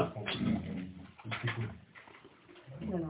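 A bird calls with low, throaty cooing phrases, several soft rolling coos repeating over a few seconds, fairly close and moderately loud against a muffled background.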